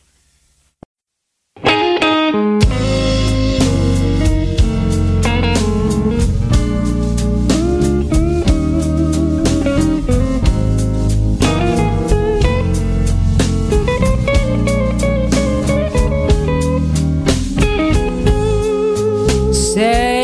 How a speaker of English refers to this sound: Uh, and we're going to give everyone out there an Indie Blues double shot from your new release. You guys are going to love this. You know what? Turn it up loud.